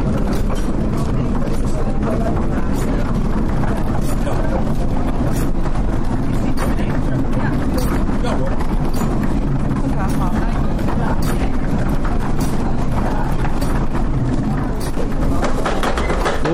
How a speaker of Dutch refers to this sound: De molen wordt nu in, eh, in werking gesteld. wordt aan het touw getrokken. En nu... Enorm lawaai eigenlijk.